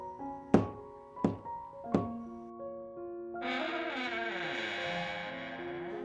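knocking on a door

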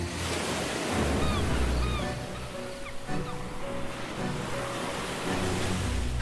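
sea waves

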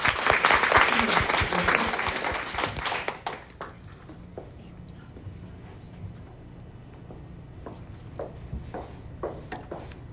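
applause

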